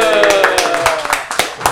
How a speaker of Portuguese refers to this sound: Aplausos.